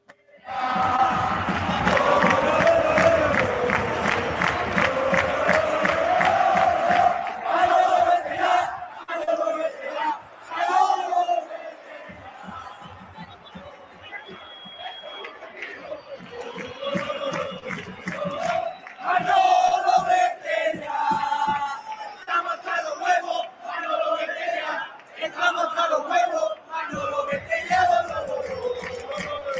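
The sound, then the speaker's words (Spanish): Málaga football fans in a large crowd at La Rosaleda stadium chant and shout in unison, calling for a club official's departure, loud and sustained, with rhythmic claps and surges of yelling rolling through the stands throughout. “Este es el sonido de la Rosaleda el pasado fin de semana.”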